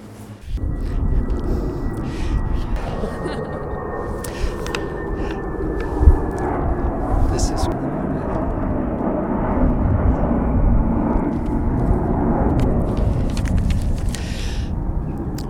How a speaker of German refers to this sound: wir stehen jetzt am Vorfeld, sehen hier sehr viele Flugzeuge geparkt.